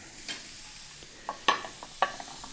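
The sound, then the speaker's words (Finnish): Grapes sizzle in a frying pan, a steady soft hiss broken by sharp crackles and pops, two louder spits standing out amid the quieter sputtering. No one speaks. “Mulla viinirypäleet tuolla edelleen sihisee pannulla.”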